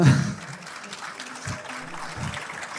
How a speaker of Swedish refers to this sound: Applåder.